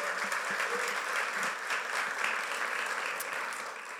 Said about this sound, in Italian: Quindi vi chiedo di venire sul palco così date entrambi un saluto, accogliamo con un applauso.